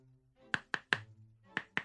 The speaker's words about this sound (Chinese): Summer 想要闭上眼睛，可是他被敲门声吓了一大跳。